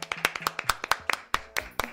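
A few people clapping in quick, uneven bursts, sharp bright claps overlapping in a loose rhythm, with a faint murmur of voices underneath.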